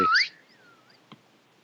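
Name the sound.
phone ringtone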